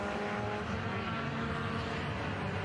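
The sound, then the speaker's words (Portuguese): Loud, steady engine roar of two race cars passing the tower on a straight of a race track, a dense mechanical drone with buzzing harmonics that holds at full volume throughout, with no voices. “De reta de novo, Petri e Valentim, Os dois passam pela Torre.”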